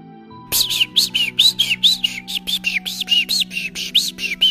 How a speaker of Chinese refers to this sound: 有一天，一阵野风刮过，带来了一只小鸟。老人把三明治碾成碎屑，撒在地上，小鸟吃了就飞到稀树枝上唱歌。